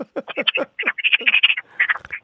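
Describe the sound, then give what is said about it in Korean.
A person's voice imitates a fried egg sizzling in a frying pan: rapid crackling pops and hissy chirps in quick irregular bursts for about two seconds, with no talking. “계란 후라이 튀기는 소리 들어보겠습니다.”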